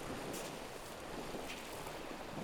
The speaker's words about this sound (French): T'as la sensation que les, les vagues s'étalent plus en fait. Et puis euh, Elle récupère l'eau comme ça, puis euh, ah, elle se répand.